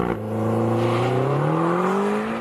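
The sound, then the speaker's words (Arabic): A McLaren super sport car's engine revs up steadily in Dubai in summer, its throaty pitch climbing smoothly over a couple of seconds, loud, with no voices. “حاسس حالي راكب كامري المكلارن دوس”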